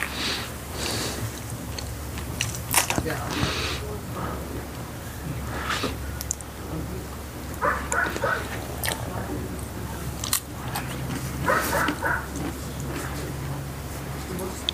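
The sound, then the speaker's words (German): A dog being fed sausage: wet chewing, crunchy bites and quick sniffs repeat irregularly over a steady low background hum. “Dann bekommen wir den Hund zu füttern.”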